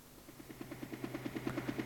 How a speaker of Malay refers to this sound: Ya bunyi helikopter datang